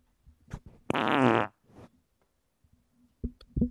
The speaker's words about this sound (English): You have to smell it now because you farted into where you're putting your face. Yep. And it smells like victory. Actually, I lied. it smells like rotten eggs.